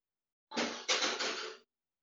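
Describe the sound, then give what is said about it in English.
A tray clatters down in a kitchen, a rattling crash with three quick bangs over about a second, then silence. No one speaks. “I think it was the tray from my delicious hash browns from earlier.”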